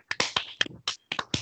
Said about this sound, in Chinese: 我们感谢政府、医护人员、联盟、球团等各防疫相关人员的努力，好，大家掌声鼓励鼓励。